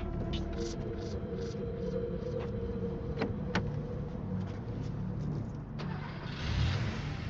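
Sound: car engine starting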